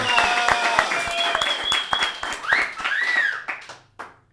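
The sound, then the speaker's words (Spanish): Loud, dense applause with many overlapping claps, joined by high whistles and rising whooping cheers, then quickly thinning out and fading to a few scattered claps at the end. “Pinche aplauso plebada, pues que escucha la verga, güey!”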